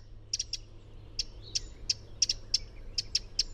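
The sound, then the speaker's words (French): A Eurasian wren gives a string of sharp, dry ticking calls, about a dozen quick notes in an uneven rhythm, clear against a low background hum with no voices. “À ne pas confondre avec le cri du troglodyte mignon, un tout petit oiseau qui se faufile dans les brochages à même le sol.”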